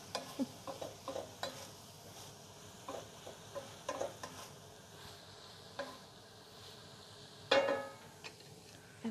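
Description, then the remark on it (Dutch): Cabbage that has been stewing for about five minutes sizzles in a pan with the lid taken off, a steady low crackle broken by frequent soft scraping stirs, with one louder clatter near the end. No one speaks. “Je kunt het misschien nog wel horen. Het ruikt eigenlijk heerlijk. Dus als ik dit zo ruik, dan denk ik, waarom eet ik niet vaak kool?”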